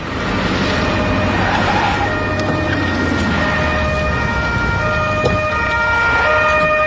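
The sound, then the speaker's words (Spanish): Sirens of arriving police cars wail steadily over the rumble of engines, several overlapping tones holding loud and constant, with no voices. “Llegan los coches de la policía.”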